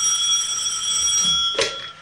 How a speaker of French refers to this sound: Téléphone, téléphone.